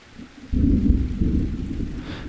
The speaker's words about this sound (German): Das Gewitter, der leichte Regen, irgendetwas. Da ist mehr. Ungemütlich.